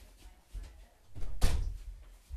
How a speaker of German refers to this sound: ähm ich musste gerade die Tür zu machen.